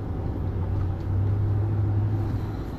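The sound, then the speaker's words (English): A big 5.7- or 7-liter car engine roars in a deep, steady drone, swelling slightly about a second in and holding strong with no one talking. “So I have this time and hear my friggin' 5.7 liter, 7 liter roaring, and I'm gonna blow this guy's doors off too.”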